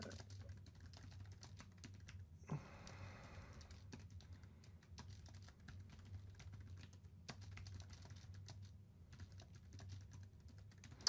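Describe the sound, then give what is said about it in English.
Steady typing on a computer keyboard while someone types up a questions section, a run of quick, irregular key clicks, with a low background hum and no one speaking. “I am here just watching, uh, typing up the uh, ask section here in case you have questions for us.”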